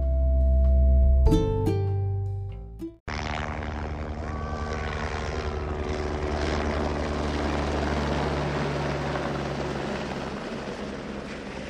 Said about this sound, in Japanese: ヘリの音を今聞いてもらったんだけどなんか最初ヘリ飛んできた時にえ誰か救助されるのかなって そう思うよね ねなんか誰か落ちたんかなとかって思ったんだけど何往復もしてるからあと一回あのー、荷物大きい荷物を吊り下げてるのを見たからあ物運んでるんだなっていう